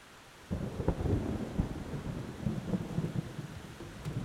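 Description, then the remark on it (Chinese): After a brief quiet moment, a loud, deep roll of thunder breaks in and keeps rumbling unevenly, layered over the steady wash of heavy rain pouring down in a sudden thunderstorm in Taipei, Taiwan, recorded with a microphone on a balcony, with no voices. “节目一开始有听到打雷下雨的声音吗？这个是这几天哈，台北突然下起了大雷雨，一下子呢，好多地方都淹水了。”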